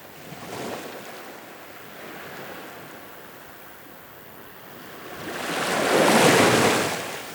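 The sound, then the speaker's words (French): Ocean surf washing in, with a smaller wave early on and a big, loud wave rising and crashing near the end, over steady windy sea noise; no voices. “Une vague. Une noix de coco.”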